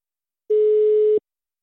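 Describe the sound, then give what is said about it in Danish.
A single telephone dial tone as the Danish radio show Radio Loud calls surveillance professor Peter Lauritsen: one steady, mid-pitched electronic beep lasting under a second, clear and alone, then it cuts off into silence. “Nu skal vi have øh, en professor i overvågning, Peter Lauritsen, på linjen, og øh, hammer jeg op.”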